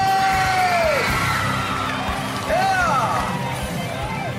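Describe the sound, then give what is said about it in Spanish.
A crowd shouts and cheers loudly for women, with several high, sliding whoops rising and falling above a steady roar of voices that lasts throughout. “Y que se escuche el grito para las mujeres.”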